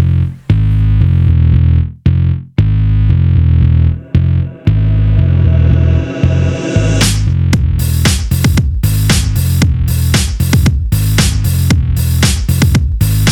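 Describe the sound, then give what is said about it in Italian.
An 80s-style song intro: loud, heavy bass chords with abrupt stops, a long rising synth sweep, then punchy rhythmic hits with bright, distorted bursts. No voices. “intro un po' anni 80.”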